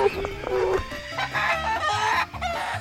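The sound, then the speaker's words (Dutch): Roosters crow and hens cluck in a busy, overlapping chorus, several birds calling at once with shrill, drawn-out crows over steady clucking; twelve roosters borrowed from the Moscow zoo for a party at a decorated house and garden in Moscow. “Niet alleen hadden ze de tuin en het huis spectaculair aangekleed, waren ook allerlei dieren geleend van de dierentuin van Moskou, waaronder exotische vogels, berggeiten, twaalf hanen en een babybeer.”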